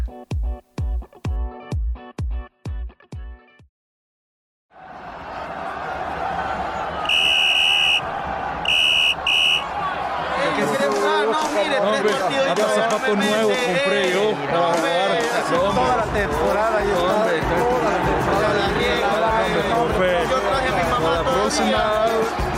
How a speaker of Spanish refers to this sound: Suena el pitido del árbitro y el encuentro finaliza.